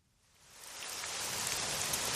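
Steady mid-July rain falls in a dense, hissing wash, heard from inside a Paleolithic-style hut on a walking trail; it swells over the first second and then holds, with faint scattered drop patters in the mix. No one speaks.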